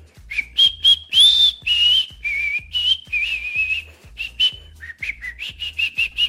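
person whistling a tune

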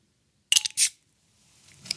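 beer bottle being opened

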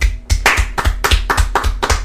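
hand clapping

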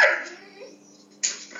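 dog barking

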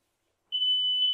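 smoke alarm beeping

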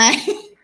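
sneeze

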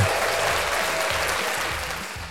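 applause sound effect

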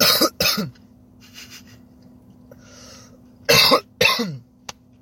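coughing

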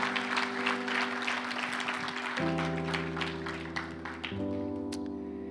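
audience applauding loudly

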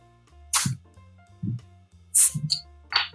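beer being opened

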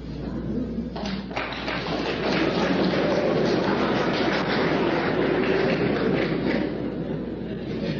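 audience clapping

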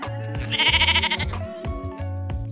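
sheep bleating

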